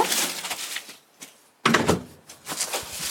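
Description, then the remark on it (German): The front door of an apartment building stairwell in Harburg Heimfeld is handled as people go outside: rustling and clicks, a brief lull, then a sudden solid thunk as it swings shut, followed by more shuffling and movement. No one speaks. “Jetzt gehen wir nämlich einmal hier vor die Tür.”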